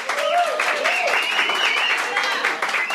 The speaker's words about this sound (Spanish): Un aplauso